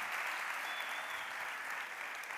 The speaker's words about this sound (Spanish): Ay, no, es que no me gusta esa iglesia, aplauden y aplauden. No, qué pereza.